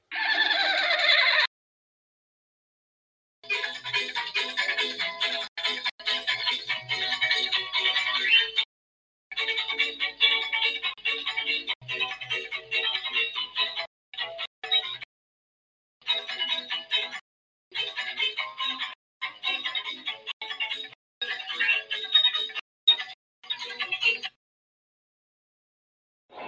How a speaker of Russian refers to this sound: Сейчас, волчок. Волчок, кстати, хорошо слышно? Но он пропадает периодически.